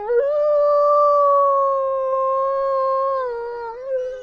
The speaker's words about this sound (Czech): Pepa najde nějaký super, super jingle s nějakým vlčím zavitím